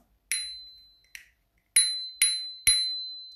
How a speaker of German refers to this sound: Also meine Fahrradklingel.